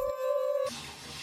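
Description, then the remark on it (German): A steady electronic tone sounds briefly, then gives way to a continuous hissing rush of shower water running, with no voices. “Und immer eilte er danach sofort unter die Dusche.”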